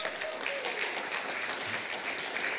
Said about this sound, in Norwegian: Det er verdt en applaus til Jesus Kristus.